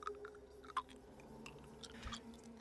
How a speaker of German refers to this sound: Regungslos steht sie in der Ecke und knirscht laut mit den Zähnen.